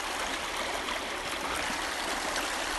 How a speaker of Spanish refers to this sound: Mira qué linda la agüita, Marín. Corren las acequias.